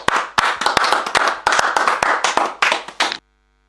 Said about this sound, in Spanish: Y los pocos que estamos acá, con mucho cariño, en nombre de la ciudad, de los hinchas, los jugadores, los que pasaron, los que están y los que vendrán, eh, un fuerte aplauso para usted.